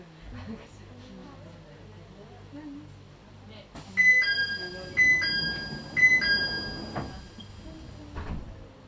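A Hakone Tozan Railway mountain train in Japan runs between Sounzan, Gora and Miyanoshita with a steady low rumble, then a series of bright, ringing chime tones sounds four or five times at roughly one-second intervals over the ongoing clatter.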